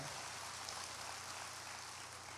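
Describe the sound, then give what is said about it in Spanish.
An audience applauds God during a sermon, a dense wash of many hands clapping at an even volume throughout, with no voices heard over it. “Aplauda a Dios si usted lo va a aplaudir fuerte.”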